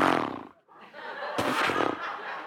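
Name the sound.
voice imitating a chainsaw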